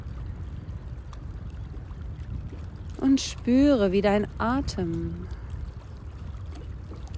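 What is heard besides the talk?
gently splashing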